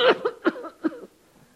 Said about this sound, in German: Ach, du bist krank? Nein, ich bin nicht krank. In Jesu Namen bin ich geheilt. Hört sich aber doch sehr nach Husten an.